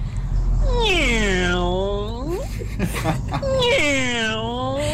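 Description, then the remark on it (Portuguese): A human voice imitates a kitten's meow with two long, loud, wavering mewing cries separated by a short pause, over a steady low hum in the background. “Parece um gatinho tão fofinho.”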